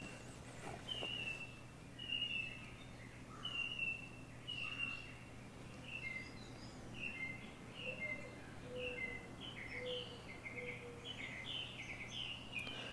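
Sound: birds singing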